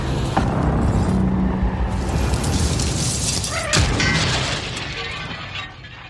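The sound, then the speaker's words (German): A violent car crash in which the windshield shatters: a loud, dense roar of crunching metal and shattering glass, with sharp impacts near the start and again around four seconds, gradually tapering off at the end. “Sie hebt ihren Kopf, schaut durch die zersplitterte Windschutzscheibe.”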